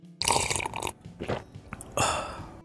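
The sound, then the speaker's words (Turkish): Loud slurping of hot coffee: a long noisy sip, a short one, then a final drawn-out slurp, with no talking around them. “Kahveyi hüplediniz”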